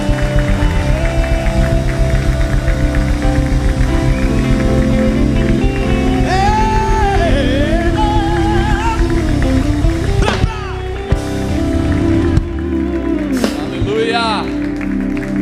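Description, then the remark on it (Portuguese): An audience applauding loudly to the Lord, a dense, steady wash of clapping that runs the whole length, with voices calling out and a wavering sung or shouted tone riding over it. “Aplauda mais forte.”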